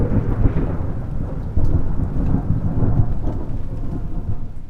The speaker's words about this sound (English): Can you add in like a uh, a, a royalty free lightning bolt when a or like like yeah, like right now